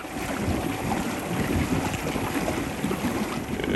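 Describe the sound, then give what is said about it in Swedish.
A rowing boat with an electric outboard motor of about four horsepower glides steadily through water between small islands, a low, even wash and hum with wind rushing across the microphone, continuous, with no voices. “Och, och, det är nog vet ni, det bästa som finns, att, att bokstavligen bara glida runt mellan holmarna i timtal och det enda man hör är det här.”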